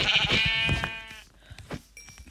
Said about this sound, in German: Ah, hier sind zwei Schafe. Dann haben wir gleich auch genug für ein Bett.